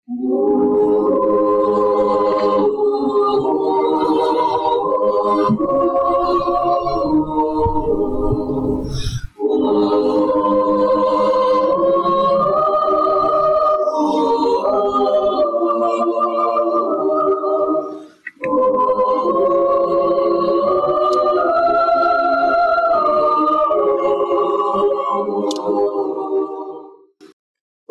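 A choir sings a Christmas hymn in full, sustained harmony, moving through three long phrases separated by brief breaths, steady and fairly loud throughout with no speaking.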